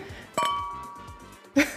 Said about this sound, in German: Wir könnten erstmal anstoßen. Das ist ja Silvester heute. Ah ja, lass uns anstoßen.